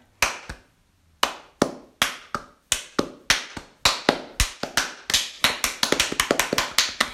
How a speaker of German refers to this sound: Ja, das sollte ein Applaus dann werden, weißt du?